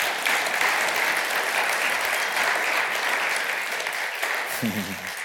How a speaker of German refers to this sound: Und ihr dürft jetzt gerne wieder Platz nehmen mit euren Stühlen. Wir geben ihnen mal einen rechten Applaus.